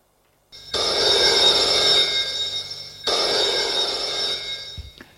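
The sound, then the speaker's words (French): A telephone rings twice, each bright, trilling burst lasting about two and a half seconds with a short gap between, loud with no voices present. “Le téléphone a sonné.”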